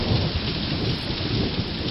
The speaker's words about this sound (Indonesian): badai bertambah buruk.